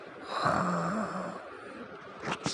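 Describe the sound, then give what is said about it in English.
A voice imitates a single drawn-out snore, a raspy, rumbling inhale with a low droning tone, followed by a couple of short breathy snorts at the end. Moderately loud. “he simply closed his eyes and started to snore once again.”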